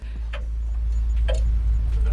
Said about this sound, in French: Ah, Et il y avait une horloge aussi. Ah, j'avoue, j'ai tellement pas entendu. C'était bien fait.